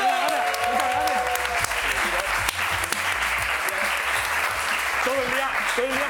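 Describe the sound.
Steady audience applause fills the whole stretch, dense clapping at an even loudness with a few voices and whistles rising over it.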